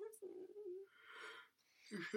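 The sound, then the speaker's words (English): A drawn-out yawn, starting with a low voiced tone and trailing into a breathy, airy exhale, moderately loud, with a short vocal sound at the end. “I should have talked and yawned on the podcast.”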